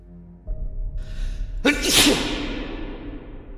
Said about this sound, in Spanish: Un estornudo de … va a hacer eco por las paredes hacia adentro